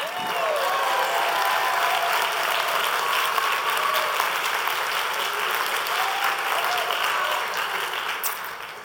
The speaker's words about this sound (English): Give her a hand clap.